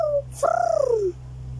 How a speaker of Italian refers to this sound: La mamma entra in camera con una gabbietta. C'è dentro un uccellino che continua a gorgheggiare.